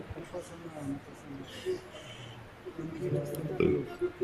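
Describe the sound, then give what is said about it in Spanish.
A low, rumbling burp sounds amid talking, with a stronger guttural belch near the end of the short stretch. “Desde hace rato estoy eructe eructe, eructe güey.”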